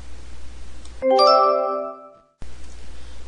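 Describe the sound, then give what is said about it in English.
A doorbell chimes a clear ding-dong, its bright tones ringing out and fading over about a second, set between stretches of soft background hiss with no one talking. “"No one makes cookies like Grandma," said Mom, as the doorbell rang.”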